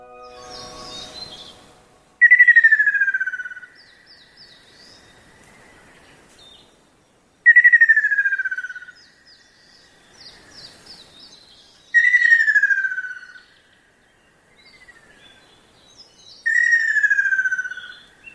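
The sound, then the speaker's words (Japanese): A ruddy kingfisher, a pigeon-sized red member of the kingfisher family, gives four loud, descending trilled calls spaced about five seconds apart, each fading into a long whistle, while fainter birdsong chirps in the forest background. “赤小瓶ですカワセミの仲間ですが鳩くらいの大きさがありオスもメスもほぼ全身が赤く足も太いくちばしも赤い鳥です腰に瑠璃色の部分があり飛ぶとこのコバルトブルーの羽がはっきり見えます”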